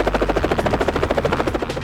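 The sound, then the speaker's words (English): A helicopter roars, its rotor blades chopping in a fast, steady rhythmic thump over a deep engine drone, loud and continuous with no voices. “The sky is the limit for this helicopter pilot in training, the long road to getting ready for takeoff, and the little known program helping him launch.”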